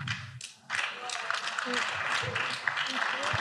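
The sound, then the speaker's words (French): A brief, modest round of applause from a few people, a dense patter of claps at moderate loudness, with murmuring voices and talk mixed in underneath. “Oh, ça, ça, c'est un petit applaudissement.”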